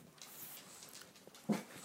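A dog, Teun, gives a brief, high whimpering whine near the end, faint against soft background noise, with no talking.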